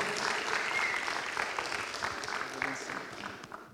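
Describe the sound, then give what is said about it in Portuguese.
A church audience applauds steadily to welcome a guest speaker at the start of a Talks series, a dense wash of clapping hands that holds loud for a few seconds before gradually thinning and fading toward the end. “Queria que você chegasse até aqui, Marcos, e aplauda a vida do Marcos Biazão.”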